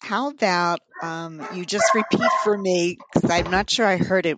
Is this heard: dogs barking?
yes